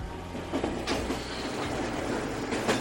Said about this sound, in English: That's the title of this recording made by … along one of the many train routes that run through the heart of Tokyo.